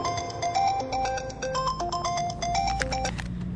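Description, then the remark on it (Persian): A mobile phone ringtone plays a bright electronic melody of quick stepping notes, loud, over a low steady rumble, with no one speaking; the incoming call is rejected rather than answered. “تلفن رو ریجکت میکنی جواب منو نمیدی”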